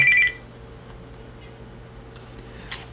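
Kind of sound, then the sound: signal or alarm, phone ringing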